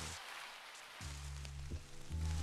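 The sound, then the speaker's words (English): Steady vinyl record crackle, a dense hiss of fine pops and ticks running throughout, with low, warm music tones swelling in underneath after the first second. “Paint you hear the, you hear the record the, crackling paint, in the, back.”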